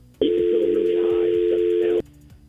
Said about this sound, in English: That dial tone was probably not a good sign, so we will try to connect or reconnect with John.